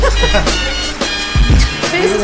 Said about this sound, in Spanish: Carro